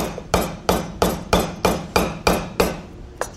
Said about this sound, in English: by the way, I cannot believe you guys let her hammer that coconut. Like, I was so nervous.